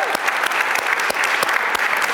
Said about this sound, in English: Uh, can you all just clap it up for the people that organized and put this together? This is one of the best conferences and nicest that I've been to.